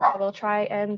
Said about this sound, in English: And uh, that's my dog in the background.